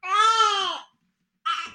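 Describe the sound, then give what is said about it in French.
An infant wails in a long, strained cry, falls silent for a moment, then lets out a second shorter cry, loud with no talking over it. “Mon bébé, je sais pas du tout ce qu'il a aujourd'hui.”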